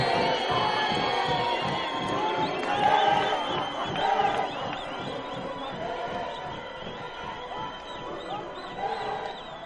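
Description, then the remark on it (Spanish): A large crowd of townspeople cheers and shouts continuously for Nelson and Winnie as they wave, a dense wall of mixed voices with a rough pulsing rhythm, staying loud for the whole stretch and swelling slightly near the start. “No te dejes engañar por esos vítores, Mativa.”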